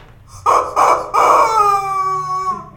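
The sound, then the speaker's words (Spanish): A rooster crows loudly: three short, rough bursts followed by one long, drawn-out harmonic call that slowly falls in pitch and trails off. No one speaks. “¿Tú qué opinas, amigo, amigo pollo?”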